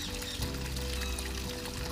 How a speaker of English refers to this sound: This little stream of water is forever moving